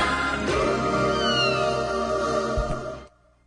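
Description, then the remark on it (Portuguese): A short jingle of the radio program Eldorado Expresso plays for about three seconds at the close of the show, bright and full with layered sustained tones and a quick sliding flourish, then cuts off abruptly into near silence. “E com essa vinheta que acordava a gente, né, desde criança, a gente encerra aqui o Eldorado Expresso de hoje, agradecendo pela companhia, pela compreensão também por esse momento.”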